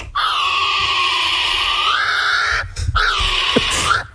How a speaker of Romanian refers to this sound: Nu mi-aș fi imaginat niciodată că pasărea națională a Noii Zeelande face sunetul ăsta. Ăsta, ăsta, ăsta. fix ăsta.